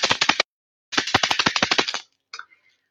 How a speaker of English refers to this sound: As well as drums, I think perhaps the most common one that people might be familiar with is a rattle, and I've just brought my, my little rattle here which again is a, a genuine Native American rattle. to give you an idea of what that sounds like.